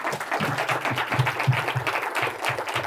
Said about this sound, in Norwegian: Applaus igjen.